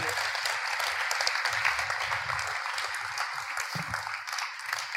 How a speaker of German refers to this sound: Und darum geben wir einen großen Applaus